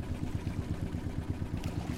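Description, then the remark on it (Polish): A fishing boat's newly fitted engine chugs with a steady, low throbbing pulse that holds at an even rumble throughout, with no voices. “Foki usłyszały, jak silnik nabiera mocy.”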